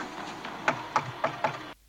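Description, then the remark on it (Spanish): Four sharp knocks on the door of a woman's house, made by men trying to get her to come outside, evenly paced with a slight hitch before the last, rapping over a steady low hiss that cuts off right after. “Ellos, ya cansados de tanto teatrillo, optaron por tocar a la puerta.”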